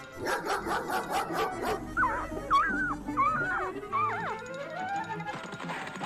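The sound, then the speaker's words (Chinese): A bulldog straining at its leash growls and whines: a quick series of rough, rhythmic bursts gives way to several high, wavering whimpering cries, fairly loud and with no one talking. “索尼娅听到身后传来的呜声，吓坏了。”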